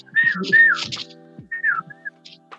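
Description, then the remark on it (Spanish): A person whistles an imitation of the call of the Fio Fio bird, two quick sliding phrases followed by a third after a brief pause, clear, with faint breathy sounds between. “no sé si allá en Santiago llegó un pájaro que se llama Fio Fio, no sé, soy, no tengo mucho conocimiento de pájaros.”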